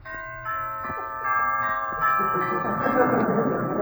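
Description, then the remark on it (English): A doorbell chimes with sustained, overlapping ringing tones that hold for several seconds, while a murmur of voices and commotion grows louder underneath. “Where's the doorbell?”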